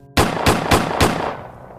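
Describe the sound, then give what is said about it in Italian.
Four loud gunshots ring out in quick, evenly spaced succession as Michelle opens fire on Scott, each a sharp full-bodied crack, followed by a reverberant tail that fades away. No one speaks. “Fu allora che apparvero Joseph e Michelle e la stessa Michelle aprì il fuoco su Scott, sparandogli per quattro volte.”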